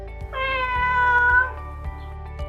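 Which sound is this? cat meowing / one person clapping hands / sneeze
cat meowing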